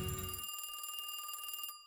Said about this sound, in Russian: который был прерван телефонным звонком коллеги.